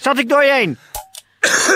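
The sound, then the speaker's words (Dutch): A man asks a short question, then a brief rough cough bursts out, preceded by a couple of small throat noises. “Moest je hoesten? Ja, ik moest hoesten.”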